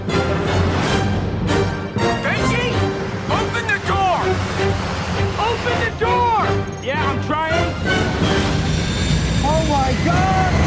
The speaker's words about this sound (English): The best part is at the end as Cruise hangs on to the side door of a plane as it takes off, like on the outside of the plane.